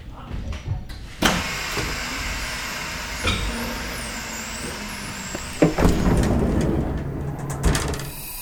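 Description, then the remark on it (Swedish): A train slows to a stop with a steady rumble, a few sharp clunks and knocks along the way, and a faint high-pitched brake squeal drifting over the top. “Hon får en kram medan tåget bromsar in.”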